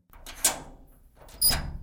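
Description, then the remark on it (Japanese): An apartment door is opened late at night: a sharp latch click, a short pause, then a second louder clunk and rattle as it swings, with a low background rumble and no voices. “ドアを開けるや否や、プレゼントください、と来たもんだ。”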